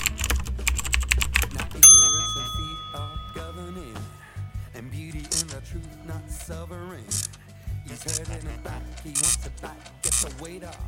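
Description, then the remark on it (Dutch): Rapid clatter of typing on a computer keyboard as a question is typed to a chatbot, followed by a bright ringing ding. A person then talks, with a few faint key taps scattered beneath the voice. “Ehm, ik vraag het even aan de chatbot.”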